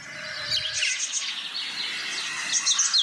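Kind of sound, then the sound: bird, birds chirping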